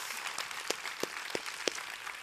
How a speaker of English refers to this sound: Come on, every hand clapping. Come on, let's give it up for Him.